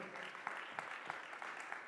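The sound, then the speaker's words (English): An audience claps hands to God in a dense, steady wash of overlapping claps, with a few sharper individual claps standing out at irregular moments, sustained throughout without spoken words. “Shall we clap our hands to God?”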